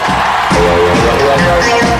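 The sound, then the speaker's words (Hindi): A loud, dense burst of crowd applause and cheering, steady throughout with a few brighter whoops rising out of the clapping roar, welcoming a guest on the show Picture Pandey. “और अब जोरदार तालियों से स्वागत कीजिए मास्टर जी नाइन दिव्य सुलगामा का”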